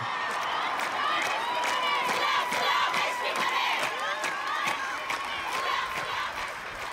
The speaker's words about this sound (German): Es war dort das erste Frauenspiel seit der Revolution 1979. Auf den Tribünen sangen tausend Zuschauerinnen auch gegen die Unterdrückung von Frauen.